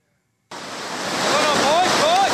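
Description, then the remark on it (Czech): Loud, steady rushing water bursts in suddenly and roars on continuously as soldiers of an army patrol race ford a river at the start of the course, in darkness in the Krkonoše mountains, with faint voices calling out over the torrent. “Hned na úvod musí přebrodit řeku.”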